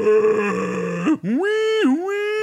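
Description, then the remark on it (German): A person vocally imitates a dial-up modem connecting to the internet: a steady buzzing tone, a brief break, then rising and warbling pitch sweeps, loud, with no other talk. “man einen Zugang hat und sich einwählt mit so einem Modem.”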